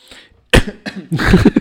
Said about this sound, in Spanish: Ha quedado muy bien que me acerque el micro para toser.